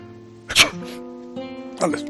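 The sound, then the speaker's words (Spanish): A single sharp sneeze, made on purpose while speaking, bursts out over a steady voiced hum, followed moments later by another short breathy burst as a voice carries on. “Yo estoy hablando, de repente estornudo y tú, sin pensarlo, contestas salud, una conducta configurada.”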